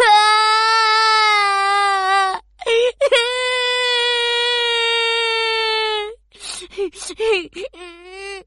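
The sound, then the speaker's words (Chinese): A voice acts out a cartoon rabbit crying loudly in distress. Two long, sustained wails with a wavering high pitch are followed by a string of short, choppy sobs and gasps. “兔子哈哈急得大哭起来。”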